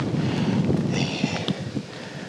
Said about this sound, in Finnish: Ja tuuli yltyy nyt. No mutta sehän on hyvä merkki.